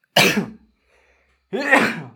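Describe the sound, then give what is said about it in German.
Two sharp, loud sneezes separated by about a second of silence, each a short, breathy burst with a voiced edge. “Kurze äh, Niesattacke, danke.”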